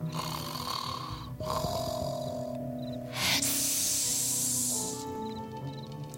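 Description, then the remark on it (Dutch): A snake hisses in one long, loud, airy burst lasting about two seconds, rising over a bed of low snoring and soft sustained tones, then fading back to the snoring. “Daar is slang. En hij sist.”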